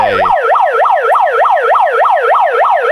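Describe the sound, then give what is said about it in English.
A loud megaphone siren blares, whooping in a fast, steady rising-and-falling yelp about three times per second, with no talking over it. “He's gonna grab that megaphone and start freaking screaming over the microphone.”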